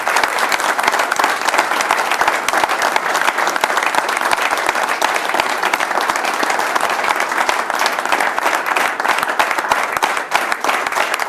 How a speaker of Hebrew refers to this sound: ושוב, תודה רבה לקבוצת ערב. מחיאות כפיים לקבוצת ערב.